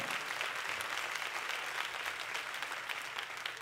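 An audience claps steadily throughout, a dense, even patter of many hands that stays at a constant moderate loudness without building or fading.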